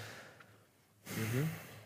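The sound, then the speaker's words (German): After a second of near silence, a single heavy huff of breath through the nose blows out, breathy with a faint voiced groan underneath. “Warum schnaufst du?”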